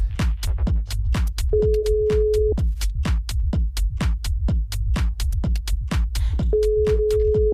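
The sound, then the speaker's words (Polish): A telephone ringback tone sounds twice while someone tries to get through on a phone call, each steady one-second beep separated by a long pause, over a loud, busy background of rapid rhythmic clicks and thumps. “Y, o, mamy jakiś sygnał. Czyżby było połączenie?”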